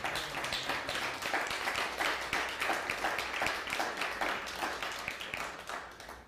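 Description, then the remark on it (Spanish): A crowd applauds a sister who is in Spain, with dense, steady clapping that keeps up at an even level for several seconds, many hands overlapping into a continuous crackling wash before easing slightly at the end. “Denle un fuerte aplauso a nuestra hermana que está en España.”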